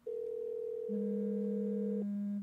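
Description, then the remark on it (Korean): A sky-blue mobile phone rings inside a bag with steady electronic tones: one sustained pitch, then a lower tone joins and overlaps before carrying on alone, loud with no one speaking. “A의 여자친구에게 전화를 한순간 울리기 시작한 의문의 휴대폰.”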